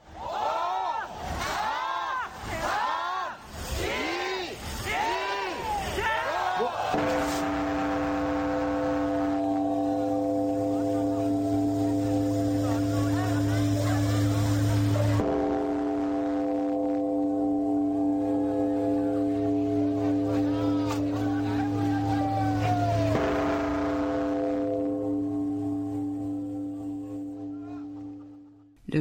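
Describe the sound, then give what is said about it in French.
A large temple bell rung at New Year, a practice from Buddhist temples where monks strike the bell 108 times on New Year's Eve, struck a few times, each blow leaving a deep, steady humming drone with layered ringing overtones that sustains for several seconds, preceded by a brief pulsing, warbling tone. “À l'origine, cette pratique sonner la cloche vient des temples bouddhistes dans lesquels les moines frappent la cloche 108 fois le soir du Nouvel An afin de se débarrasser des 108 souffrances du peuple.”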